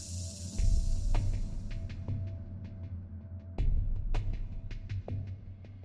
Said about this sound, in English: The chamber is ruptured, Flint's air escapes out of the holes in his suit, and he collapses.